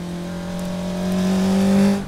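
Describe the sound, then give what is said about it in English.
A car engine hums steadily, then swells louder as the vehicle speeds past, peaking briefly before the roar starts to fall away. No voices are heard. “Have you ever felt that gush of wind when you're standing on the pavement and a car races past?”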